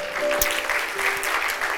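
A crowd claps steadily for God, a dense, continuous patter of many hands filling the whole moment at moderate loudness, with a faint tonal hum underneath and no clear talking over it.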